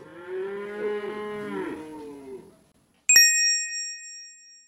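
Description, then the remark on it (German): A wildebeest in the African savanna during the great migration lets out a single drawn-out, nasal mooing call lasting a couple of seconds, followed after a short pause by a bright metallic ding that rings and slowly fades. “Das Gnu-Kalb ist nicht mal zehn Minuten alt. Schon steht es auf eigenen Beinen.”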